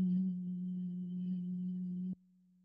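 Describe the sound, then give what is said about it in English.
A single sustained, gentle nasal hum held steadily at one low pitch for about two seconds, soft, then cutting off abruptly to near silence; made through the nose after a breath that fills the belly, with the tongue resting behind the top front teeth. “And then through your nose, a gentle hum that feels like it can vibrate your face.”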